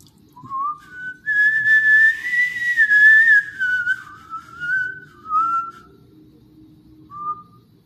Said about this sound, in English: They might know what that whistle means, how shitty it is, especially when I know how to whistle.